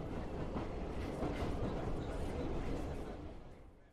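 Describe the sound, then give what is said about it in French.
A metro train rumbles steadily along the rails, a dense, loud roar with faint rhythmic clatter, fading slightly at the very end. “On peut y aller en métro.”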